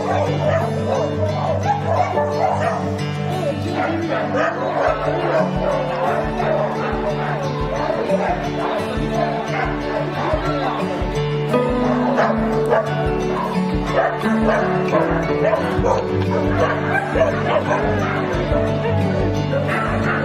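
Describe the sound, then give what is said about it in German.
A chorus of many dogs at a dog shelter barking, yipping and whining at once, loud and continuous, with overlapping yaps and a low steady hum underneath. The dogs are kept outdoors in an open area with cover from rain and heat. “Und so sieht unser Hundetierheim aus.”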